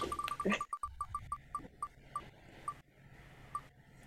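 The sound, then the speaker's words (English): Rapid ticking of an online prize wheel spinning, the clicks quick at first and then spacing out as it slows to a stop, fairly clear with no talking. “Let me spin that again so, so we have the sound.”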